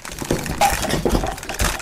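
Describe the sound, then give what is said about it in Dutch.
Clattering and rustling of hard plastic headphones being shuffled and knocked together as someone digs through a huge box of East German-made headphones looking for a pair that fits, in several irregular bursts. “u hoort het op de achtergrond in de enorme doos eh, koptelefoons uit van Oost-Duitse makelij aan het zoeken naar eentje die past.”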